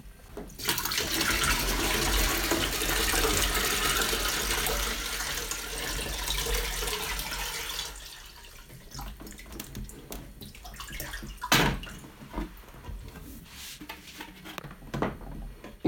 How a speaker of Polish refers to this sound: Teraz nalałbym kilka kubków i wody by już nie było, dlatego też doleję wody do zbiornika na wodę nieprzefiltrowaną.